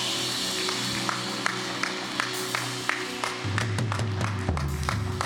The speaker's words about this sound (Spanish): Dale ese aplauso a Dios.